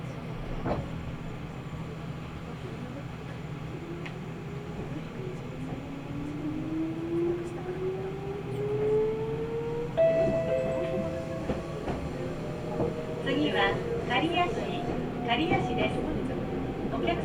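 A train on the Nagoya Railroad Mikawa Line between Chiryu and Hekinan runs steadily along the rails, its low rumble continuous with rising and falling whine tones from the motors, and faint clicks and rattles from the carriage throughout.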